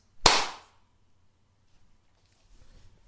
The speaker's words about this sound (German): Hast du geklatscht? Ja. Du auch? Da waren wir echt synchron.